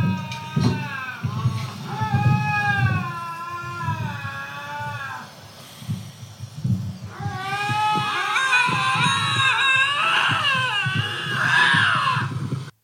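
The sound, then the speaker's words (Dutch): Fighting lynxes yowl in long, wavering wails that rise and fall like crying babies, first a steady pair of voices, then a louder, denser tangle of overlapping howls with a low rumble underneath. “Ik vind dat katten klinken heel erg als krijzende baby's.”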